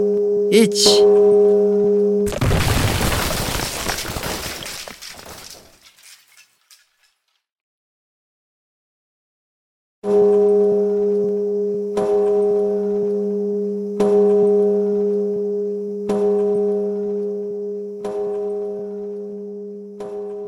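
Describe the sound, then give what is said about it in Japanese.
A deep New Year's Eve temple bell (joya no kane) in Matsumoto, Nagano Prefecture, struck by a large wooden log, rings with a long, humming resonance, broken by a loud crashing burst and a few seconds of silence, then struck again and again about every two seconds. “どうやら今年も除夜の鐘は鳴り続けることになりそうですね。”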